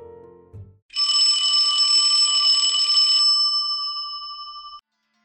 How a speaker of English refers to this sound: 此时门铃响起，